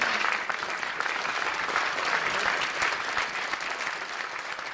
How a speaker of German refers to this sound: Aber selbst dieser Applaus steht in keinem Verhältnis dazu, wie groß der Aufwand ist, der hinter einem solchen Bild steckt.